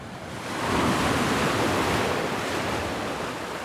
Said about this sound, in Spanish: Cuando Luis Noriega contempla las olas en medio del mar, pasan por su mente muchas cosas. La frecuencia del oleaje, el viento, los espacios o el tipo de olas que está a punto de surfear.